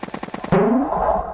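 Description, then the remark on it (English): A rapid string of short, punchy retro video game cannon blasts fires in quick succession, then ends in one loud booming shot with a descending, ringing tail, all without any talking. “There was the second cannon.”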